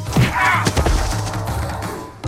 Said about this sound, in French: Le premier, Robinson l'assomme avec son fusil.